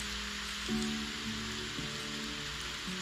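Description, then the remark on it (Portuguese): Steady rain patters on a surface in a continuous, even hiss, with soft sustained musical tones drifting underneath. No one speaks. “enquanto chove e você ouve a música.”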